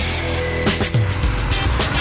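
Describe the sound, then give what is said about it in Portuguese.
Dense road traffic in Jardim Mangueiral on a slightly cloudy Monday morning: a steady, loud wash of engine rumble and tire noise, with cars and heavier trucks surging past and a brief brake hiss. “E agora aqui do Jardim Mangueiral, de onde eu observo o trânsito com muita intensidade.”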